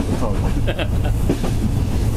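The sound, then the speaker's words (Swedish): A train rolls steadily along its rails with a continuous low rumble, faint rhythmic clatter and a few brief higher squeaks; voices murmur faintly underneath. “Först tåget rör sig.”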